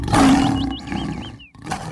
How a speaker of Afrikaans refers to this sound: Maar toe hoor sy die leeu brul van pyn en woede.